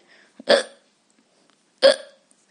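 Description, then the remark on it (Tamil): Two sharp hiccups, about a second and a half apart, each a sudden voiced gulp, with quiet between them. “the first word hiccup hiccup means விக்கல் நாம் அவசர அவசரமாக பிரேக்ஃபாஸ்ட் சாப்பிடும்போது முக்கியமாக இட்லி மாதிரி உணவை சாப்பிடும்போது நமக்கு வருவது விக்கல்”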